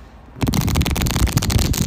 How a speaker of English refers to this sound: I'm doing tarot readings. That noise that you're hearing is me shuffling cards. I'm not eating chips.